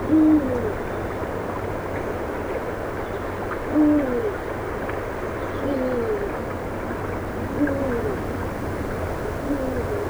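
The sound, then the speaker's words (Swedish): A Eurasian eagle-owl, perched up in a pine tree outside Västervik, hoots about five times, deep calls spaced roughly two seconds apart, moderately loud over a steady low background rumble. “Berguvarna i Västervik”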